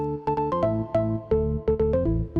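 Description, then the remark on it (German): A bright, buzzy vintage organ-like synth plays a quick melodic riff of sustained notes with sharp attacks, fairly loud, with no voices present. “Aber jetzt nochmal zurück zu diesem tollen Orgelsound.”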